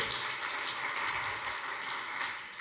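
An audience claps steadily for a few seconds, a dense crackling wash of many hands at an even, fairly strong level that eases slightly at the end. No voices are heard.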